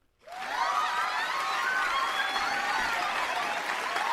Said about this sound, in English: oh, cheering.